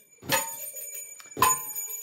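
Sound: bell rung twice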